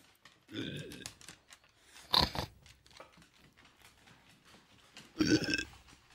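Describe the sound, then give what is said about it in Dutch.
Two loud, rough grunting bursts from a sow, one near the start and another toward the end, with a sharp click or crunch between and quieter snuffling noises throughout. “Zo, geile zeug.”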